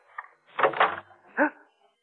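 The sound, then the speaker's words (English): A kitchen door creaks open, a short rattling scrape followed by a rising, squeaky groan of the hinges, then silence. “You, you open the door.”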